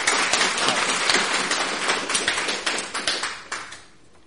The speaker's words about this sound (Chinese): 我们能不能给我们的神一点掌声？谢谢他这样爱我。